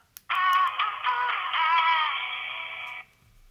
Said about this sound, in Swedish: vi skulle ju kunna klippa in liksom P4s eh, hur det låter när de ringer upp